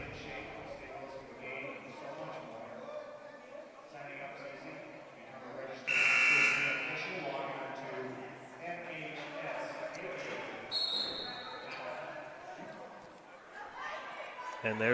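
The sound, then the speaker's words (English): A loud, harsh timeout horn blares once for under a second in a busy gymnasium during a timeout with 5:22 left in the third, cutting through steady crowd noise and a commentator talking. “the first horn that sounds.”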